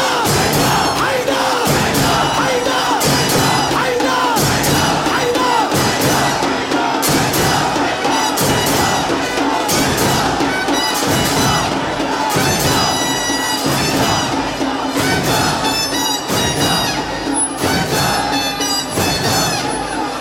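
A large, loud crowd chants sacred tatbir slogans in strong rhythmic bursts, many voices shouting together with a dense, continuous roar that never lets up.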